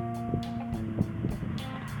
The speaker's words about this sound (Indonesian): motor lewat tiga motor ya udah